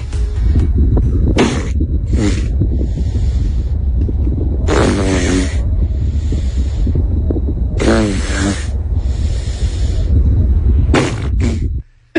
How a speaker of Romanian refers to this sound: Deci este un elefant de mare care doarme pe uscat.